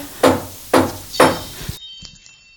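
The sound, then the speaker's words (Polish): Three loud, heavy knocks on a wooden cottage door, evenly spaced about half a second apart, each with a short booming ring before the next, followed by quiet. “Ktoś do chaty stuka.”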